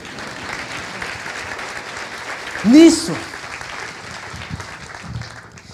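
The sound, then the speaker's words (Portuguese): An audience at a preaching event applauds steadily at the preacher's invitation, a dense, crackling wash of clapping that runs the whole way through, with a short, loud voice breaking over it around the midpoint. “Aplaude aí, gente. Pode aplaudir, não tem problema.”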